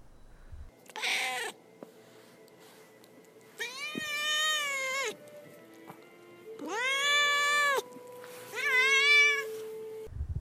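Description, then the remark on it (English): A male domestic cat meows four times, loud, each call a drawn-out, wavering yowl with pauses between, over a faint background hum. “now is the time when we turn to my cat Duarte for his opinions on the story”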